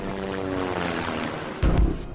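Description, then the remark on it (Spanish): A steady, droning helicopter engine hums with a throbbing rotor tone, then swells into a louder, rougher burst near the end, as if passing by. “Eh, él pidió un helicóptero que lo trasladó a la ciudad de Coatzacoalcos le pedimos un ride en helicóptero a Flavino Ríos y regresamos a políticamente incorrecto.”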